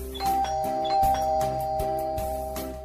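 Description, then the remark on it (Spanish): A sustained electronic doorbell tone rings at a house in a village during a posadas visit, alongside a low hum, with a few soft percussive knocks and clicks punctuating it. No one speaks. “Vamos a tocar el timbre en esta casa a ver qué tal nos reciben.”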